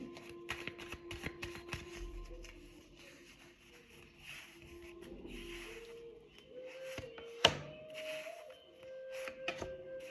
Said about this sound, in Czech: A já už se dívám na vaši fotku, míchám u toho karty a my se spolu podíváme, co nám Tarot poví o roce 2023.